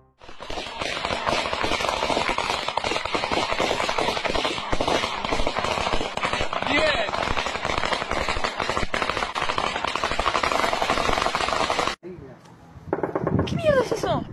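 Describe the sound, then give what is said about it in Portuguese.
Intense, rapid gunfire at a military base, captured by security cameras, crackles nonstop in dense overlapping bursts for about twelve seconds, loud and chaotic, then breaks off briefly before a few more scattered shots. “Câmeras de segurança também conseguiram captar o barulho dos tiros.”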